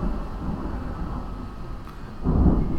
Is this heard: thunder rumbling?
yes